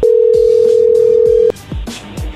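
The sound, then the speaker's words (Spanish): An incoming phone call tone: a loud, steady mid-pitched electronic beep that holds for about a second and a half, then cuts off, with soft low thumping beats underneath and continuing after. “a ver, ahí entró la llamada, contéstale tú.”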